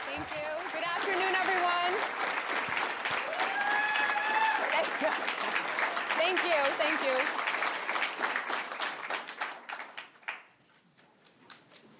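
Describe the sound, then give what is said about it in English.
A large crowd on its feet applauds loudly and steadily in a standing ovation, with cheers and voices rising over the clapping, then the ovation gradually thins out into scattered claps near the end. “Crowd is all on their feet.”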